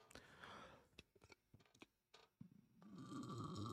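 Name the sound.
burp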